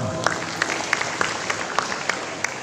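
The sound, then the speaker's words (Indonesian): An audience applauds attendees from Kenawangan in a steady wash of clapping, with sharper, evenly spaced claps cutting through about three times a second, moderately loud and continuous throughout. “Ya, terima kasih. Tepuk tangan, Kenawangan.”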